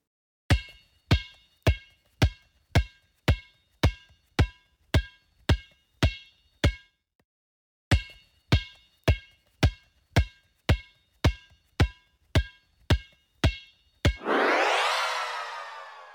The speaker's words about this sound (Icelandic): Þarna er verið að drippla bolta.